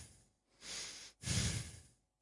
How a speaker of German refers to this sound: Man, hört man mein Atmen auf diesem Ding? Bestimmt.